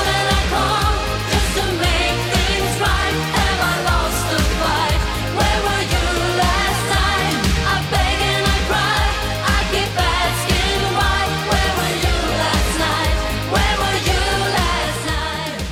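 A 1989 pop song plays at full, steady volume, with a driving regular drum beat, bass, synths and a melodic vocal line filling the mix. No one talks over it.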